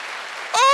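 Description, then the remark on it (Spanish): An audience's steady applause to the Lord, a brief wash of clapping, with a loud sustained voice, like a shout or cheer, cutting in over it near the end. “Eso se merece un fuerte aplauso al Señor”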